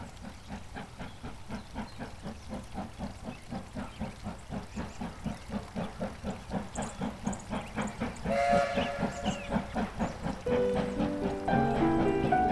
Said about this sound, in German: Der Dampf der alten Lok verteilte sich auf dem Bahnsteig.